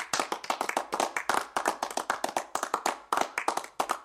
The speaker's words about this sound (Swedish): Eh, en av er kan få applåd. Här kommer den.